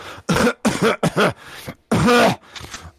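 throat clearing

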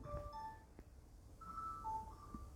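telephone ringing

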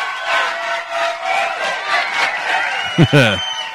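applause and cheering

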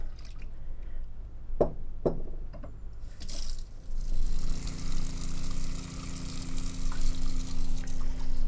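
water pump running

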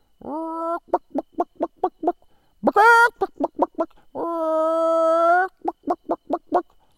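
chickens clucking

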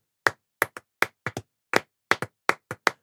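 rhythmic hand clapping

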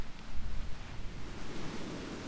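rushing water

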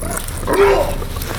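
dog growling and barking

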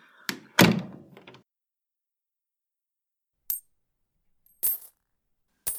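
door being closed

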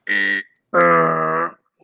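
wrong-answer buzzer sound effect

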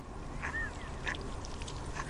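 ducks quacking

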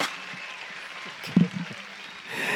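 applause sound effect

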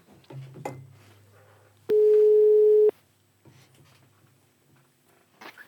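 phone call ringing tone

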